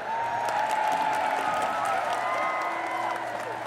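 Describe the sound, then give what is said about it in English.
A crowd cheers and applauds steadily as a speaker finishes addressing them, a dense wash of clapping and raised voices that holds at an even, fairly loud level for a few seconds. “and as you continue on you can feel the murmuring of voices as they discuss what you're talking about as they discuss the statements you're saying and as you finish the people cheer”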